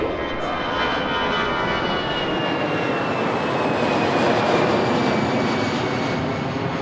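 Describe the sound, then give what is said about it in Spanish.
An airplane bound for Madrid taking off: a loud, steady engine roar with a thin whining tone drifting slowly downward, holding at full strength throughout without any voices. “Señores pasajeros, embarquen por la puerta número D65.”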